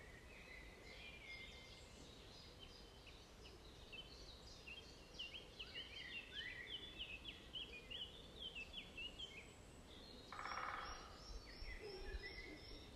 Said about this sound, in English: Here is an invitation to listen. Hey, here's the woodpecker. So, this is an invitation to listen to the birds and let ourselves be carried into presence with the songs of the birds.